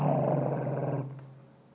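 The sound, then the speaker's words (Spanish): A person imitates a dog's growl: a low, rough, rumbling snarl held for about a second, loud, then trailing off into quieter breathy noise. “Hay perros que están echados y tú vienes pasando y los perros comienzan.”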